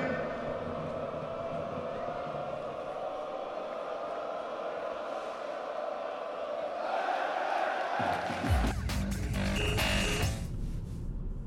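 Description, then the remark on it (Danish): A large stadium crowd murmurs and roars steadily, then breaks into loud, dense applause and cheering for the gold-winning championship team as it goes around the field, swelling over the last few seconds. “Guldholdet nu går rundt og banen, og vi med jer publikum om at give dem en kæmpe bifald, når de kommer forbi jer.”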